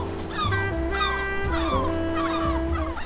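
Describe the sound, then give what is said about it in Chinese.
A few seagulls over a blue ocean, seen from a high cliff, call in a series of high, squealing cries, about five rising-and-falling bursts spread over a few seconds, heard above a steady droning tone. “还点缀着几只小海鸥，嘿嘿，在那边，在那边。”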